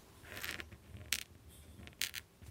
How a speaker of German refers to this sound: Man hört natürlich auch, wie die, die Feder richtig übers Papier kratzt sozusagen.